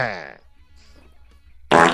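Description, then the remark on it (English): A short, loud, buzzy fart sound right at the start, followed by a near-silent pause and then an abrupt burst of breathy noise at the end. “All right, I'll start. While you fart.”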